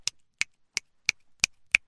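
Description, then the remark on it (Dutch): Six crisp finger snaps in a steady, even rhythm, each a sharp, bright click that stops dead with no lingering tail, in a small home studio with no talking. “Kijk, als ik in mijn vingers knip,”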